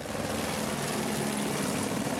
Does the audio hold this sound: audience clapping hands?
no